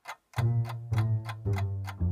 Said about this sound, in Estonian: on hommikune aeg ja tiksub kell.